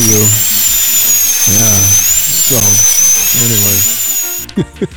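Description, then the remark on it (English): A high-pitched dental drill whines steadily, its shrill tone wavering slightly, while lower voices talk underneath before the drill cuts off near the end. “So, anyway, then your toes curl up just listening to that sound.”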